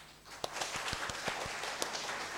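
An audience applauds, a dense wash of many hands clapping with a few sharper individual claps standing out, steady and moderately loud with no talking.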